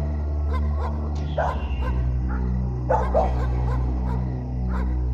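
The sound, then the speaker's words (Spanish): Many dogs from the surrounding area bark and yip at once, overlapping in bursts over a steady low hum, with a few louder barks standing out from a chorus of fainter ones. “Los ladridos de todos los perros de los alrededores hacían más tétricos aquellos momentos.”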